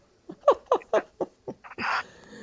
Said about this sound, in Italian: Eh, mi è venuto un colpo di tosse,